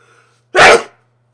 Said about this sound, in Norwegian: Nå kommer det snart en nys.